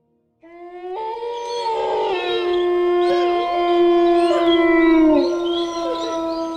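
Several wolves howl together in a sustained chorus, their long wavering notes overlapping and gliding up and down, loud, starting within the first second and continuing to the end without pause.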